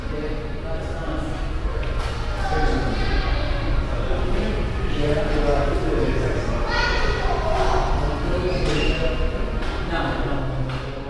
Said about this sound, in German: Und ich habe ihn auch innerhalb des Glockenturms aufgenommen. Da klingt er so.